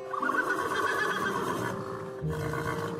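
A horse neighs loudly, a long quavering whinny that holds for a few seconds before a shorter, lower snort-like call at the end. No one speaks.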